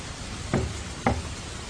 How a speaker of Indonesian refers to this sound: Ah, aku tak sanggup lagi. Aku bisa menjadi gila apabila aku terus mendengar suara ketukan ini. Paling tidak, jika aku melihat apa yang menyebabkan suara itu, aku akan menjadi sedikit tenang.